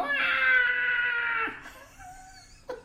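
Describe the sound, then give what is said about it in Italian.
A voice mimics the character Angelino crying after he causes a great disaster: a loud, sustained, high-pitched wail that breaks off after about a second and a half, followed by softer whimpering tones and a short sharp sob at the end. “Perché Angelino alla fine di tutta questa situazione fa un gran disastro e poi se ti ricordi piange, fa...”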